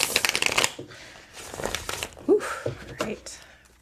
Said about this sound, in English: So, with our green theme, I thought it would make sense for us to do the uh, Northern Animal Tarot again because it's all green and yes. So, I'll do a quick shuffle here and we'll pull our card for the week for some advice.